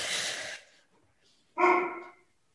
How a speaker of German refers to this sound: Was ist denn da los bei dir im Hintergrund? Jemand hat an der Tür geklingelt und der Hund kommentiert.